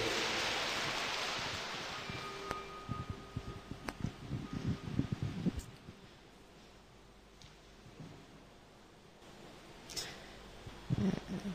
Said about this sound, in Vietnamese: xin vị dành trần pháo tay để lắng nghe sự chia sẻ của đại sư huệ liên